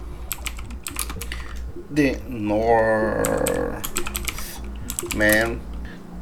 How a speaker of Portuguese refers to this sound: Vocês me perdoem o tec-tec do teclado aqui.